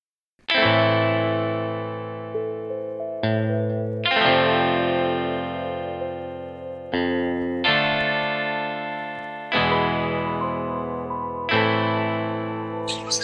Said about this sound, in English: the song … was created as part of the Satellite Foundation's At Home with Satellite program. Have a listen.